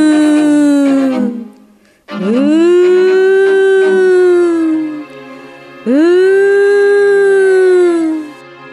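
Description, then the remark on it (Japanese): A wartime air raid warning siren wails loudly across a town in the quiet night, warning of enemy planes, in three long cycles, each rising in pitch, holding steady, then sliding down before the next wail begins. No voices are heard. “突然重苦しいサイレンの音が静かな夜空を引き裂くように街中に響き渡りました空襲警報ですまた敵機がやってきたのです”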